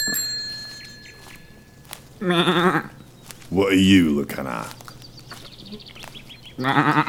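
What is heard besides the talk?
sheep bleating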